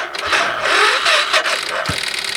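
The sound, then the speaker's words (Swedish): A Suzuki Savage motorcycle engine, out on a patch of snow, cranks with a strained, wavering whir for a couple of seconds but never catches and fires up; a steady, fairly loud grinding with no one talking. “Ja, du lät lite nöjd ändå med att han inte fick igång sin.”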